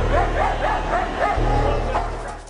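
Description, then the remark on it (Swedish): A dog barks in a quick rhythmic series of sharp yips, about five or six in a row, over a steady low rumble of background noise, during a chase along a railway platform and into a train tunnel. “Håll hunden! Håll hunden!”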